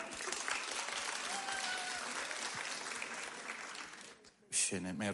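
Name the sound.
audience applause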